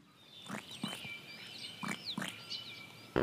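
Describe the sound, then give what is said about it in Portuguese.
A toad croaks in a handful of short, raspy, gargling bursts at uneven intervals, while birds chirp and whistle steadily in the background. “Até que o sapo, sem querer, rouquejou.”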